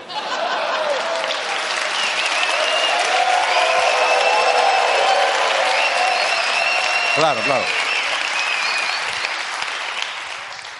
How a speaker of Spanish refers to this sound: Entiendo este aplauso como un aplauso a toda una carrera de Ana Rosa.